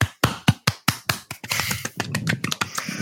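A short burst of applause welcoming a newcomer on his first appearance: a handful of sharp, separate hand claps at first, quickly thickening into a denser patter of several people clapping together, with no voices.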